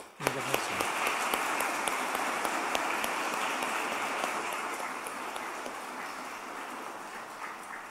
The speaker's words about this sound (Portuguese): É, como nós não podemos chegar em vocês, abraçar e cumprimentar, nós queremos demonstrar nossa satisfação, nossas boas-vindas, nossa acolhida com uma salva de palmas.